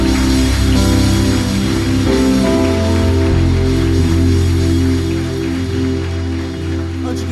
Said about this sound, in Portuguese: Você pode aplaudir o Senhor aqui nessa noite?